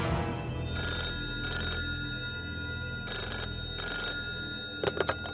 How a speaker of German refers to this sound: Bei Barbara Wagner klingelte das Telefon.